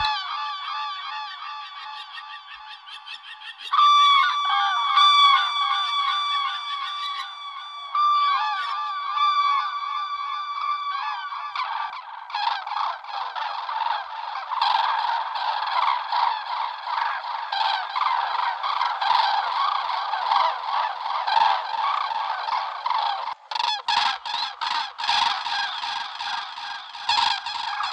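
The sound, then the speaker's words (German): Drawn-out, harsh bird alarm calls repeat fairly loud, starting as long nasal tones and building into a dense, noisy stretch of overlapping calls with no talking. “Häufig hört man auch ein gerade ausgestrecktes Gar, das gesteigerte Aufmerksamkeit oder Besorgnis ausdrückt.”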